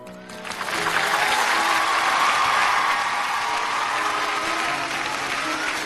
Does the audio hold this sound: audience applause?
yes